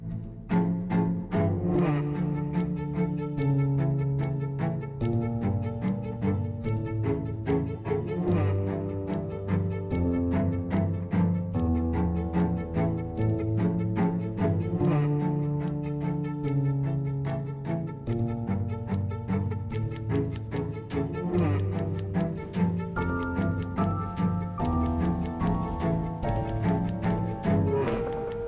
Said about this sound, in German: Sie mit dem Geklacker der Schreibmaschinen